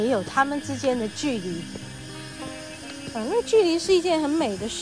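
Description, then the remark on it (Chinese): A steady, high-pitched cicada buzz runs continuously beneath someone speaking calmly, the insect drone staying fairly faint and even throughout. “好，现在听到这个蝉叫声。”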